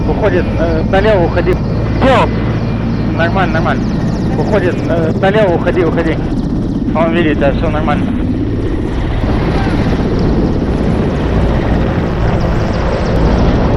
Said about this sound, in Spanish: Sonidos e imágenes de lo que desde entonces conocemos como la batalla de Ostomel, en la que se pueden ver como decenas de helicópteros rusos transportan a sus tropas para tomar el aeropuerto, con apoyo de helicópteros de ataque como los Kamov K-52